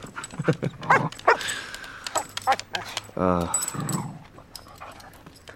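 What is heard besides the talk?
excited dog panting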